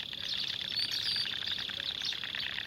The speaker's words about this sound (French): Des moineaux espagnols se regroupent dans les chênes et les pins parasols pour passer la nuit.